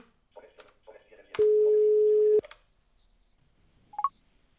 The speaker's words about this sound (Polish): Słyszę, że telefon dzwoni.